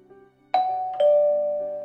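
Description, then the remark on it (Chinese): A doorbell at a room's door rings with two clear chime tones, a bright higher note followed by a slightly lower one, each ringing out and slowly fading over a faint background hum. “门外的铃声响起，进。”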